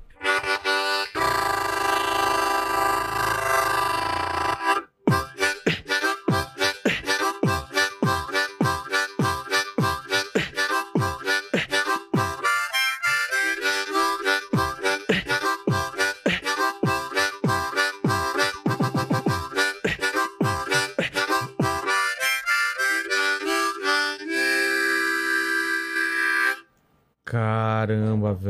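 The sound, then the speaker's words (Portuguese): A beatbox performance played together with harmonica: sustained reedy harmonica tones ride over rapid, punchy vocal percussion hits in a steady driving rhythm, loud throughout with a brief pause near the start and end. “E o beatbox com gaita, né? Com gaita.”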